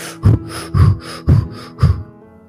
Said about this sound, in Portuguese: Passamos os dias encurtando os ciclos de respiração a ponto de fazer assim.